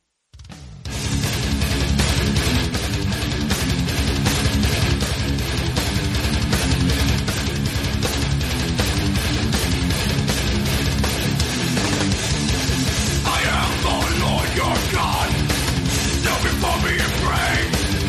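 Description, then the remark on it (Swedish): A loud, dense hardcore punk track from the band's first real studio album plays throughout, with a wall of distorted guitar and pounding drums, and shouted vocals breaking through toward the end. “Och första skivan de släpper, alltså första ja.”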